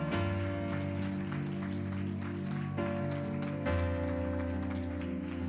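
An audience claps loudly and steadily for several seconds in praise of the King of Glory while sustained keyboard or organ chords play underneath, the applause dense throughout.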